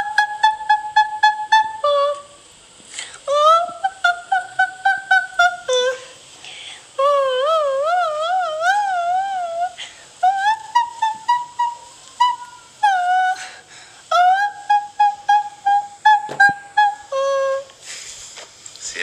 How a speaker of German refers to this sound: Und kannst du das nochmal, das schöne Lied singen? Das ist von der Königin der Nacht.